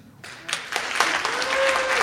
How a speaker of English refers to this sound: Instead, just clap if you've listened to Serial. Okay. Clap if you think he's innocent.